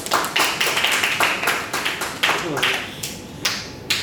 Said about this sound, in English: Clap, clap, clap.